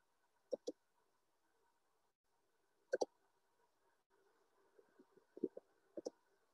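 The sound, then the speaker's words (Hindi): Three pairs of quick, crisp computer mouse clicks, with a few softer taps and faint background hum between them; no one speaks. The clicks are made while selecting charts, clicking on 'More Pie Chart'. “मैंने जब मोर pie chart पे क्लिक किया”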